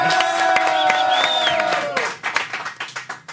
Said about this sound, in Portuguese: Vou aplaudir de novo que o cara tá filmando, amigo.